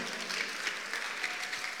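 Steady applause from an audience, a dense, even patter of many hands clapping at once with no voices over it, holding at a moderate level throughout.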